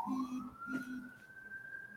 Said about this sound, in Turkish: Şu anda hala arkadan şey geliyor. Siren geliyor.